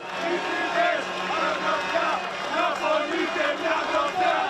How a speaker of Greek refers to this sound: Μελισσοκόμοι χειροκροτούν και φωνάζουν συνθήματα την ώρα που περνούν οι φοιτητέ από μπροστά του.